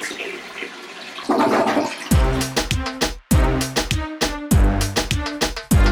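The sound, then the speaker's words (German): A toilet flushes with a loud, rushing whoosh of water, then gives way to a series of rhythmic, tonal bursts that repeat with short gaps until the end. “Haben Sie gehört? Schunke Toilette.”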